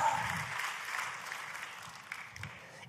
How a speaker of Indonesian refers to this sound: Oh aminmu yang paling keras, tepuk tangannya yang paling meriah buat Yesus Tuhan kita.